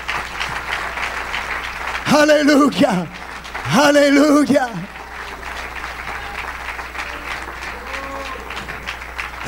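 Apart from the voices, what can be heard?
audience clapping hands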